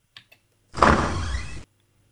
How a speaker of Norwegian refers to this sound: Altså, det er jo lyden av ei dør som åpner seg, men er det, er det, den lyden man hører når man går ned en ny etasje? Eh, nei, eh, går, det er bare en trapp som går ned en ny etasje, men det er lyden av en dør som åpner seg.